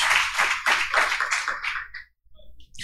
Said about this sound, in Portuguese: Uma salva de palmas ao Senhor aí.